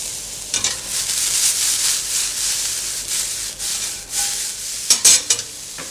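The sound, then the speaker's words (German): Salted mushrooms with herbs, shallots and garlic sizzle steadily in a hot pan, fairly loud, with a few brief scraping stirs near the start and end. No one speaks. “Und jetzt tun wir die Pilze ein bisschen salzen, machen die Kräuter und die Schalotten und den Knoblauch dran.”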